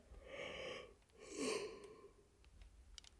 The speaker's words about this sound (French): Ouais, je suis désolée, j'arrête pas de bailler. Crise de bâillement.